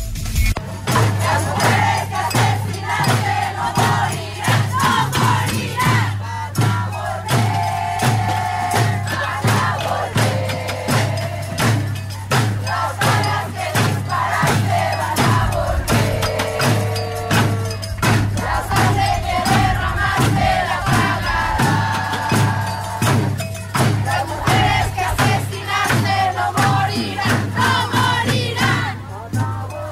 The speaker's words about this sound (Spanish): pues también eh, eh, se escuchaba dentro del contingente el grito de fuera acosadores de la universidad.